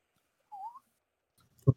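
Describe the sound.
A single short whistle, a clear tone that dips and then slides upward for about a quarter second, followed after a pause by a brief dull knock. No one speaks.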